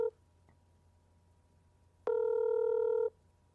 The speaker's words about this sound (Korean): 저희 한번 모셨던 우리 타짜 네. 우리 곽철용 김웅수 씨께 지금 전화를 한다고요. 지금.